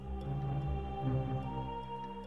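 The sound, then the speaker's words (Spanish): Clock bells chime midnight, ringing out with a sustained, humming resonance, their layered tones lingering steadily at moderate volume with no one speaking. “Pues escucha, las eh, campanadas.”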